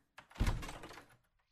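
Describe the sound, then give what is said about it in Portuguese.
An attic door on the third floor is pushed open with a brief scrape, then a single heavy, dull thunk that rings out for under a second before quiet returns. “Eu vou para o sótão no terceiro andar. O sótão tem caixas de arrumação e coisas velhas. Eu abro a porta.”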